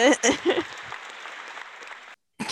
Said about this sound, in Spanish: Duraron un poquito todos los aplausos